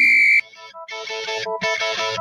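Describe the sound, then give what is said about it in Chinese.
A telephone busy signal heard when calling Wan Feng's radio programme: a steady, piercing electronic beep, followed by buzzy, harmonic tone bursts that repeat in a broken on-off pattern with brief gaps. No voices. “怎么电话总是占线？”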